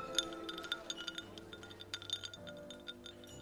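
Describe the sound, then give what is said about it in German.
Glasses clink together in a toast, a quick flurry of bright chimes and taps over a soft, steady tonal hum, with no voices. “Prost auf Zum uns. Prost.”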